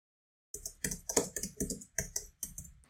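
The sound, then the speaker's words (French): Rapid, forceful typing on a computer keyboard, a burst of clattering keystrokes in quick irregular clusters after a brief silence, with no voices. “Mais arrête de taper sur ton clavier comme ça, putain, Mais non, mais j'ai de la force surhumaine, je sens même pas ma force, c'est ça qui et arrête de euh, faire des tweets pendant qu'on parle.”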